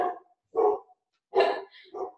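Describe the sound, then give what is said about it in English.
A dog barks four times in short, sharp bursts with brief pauses between, loud, the third bark the strongest. No one speaks. “I'm oh, sorry, my dog.”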